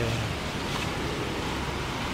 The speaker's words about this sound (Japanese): 56号線の横に、まあ、少し大きめの川が流れています、えー、幅そうですね10メーターぐらいあります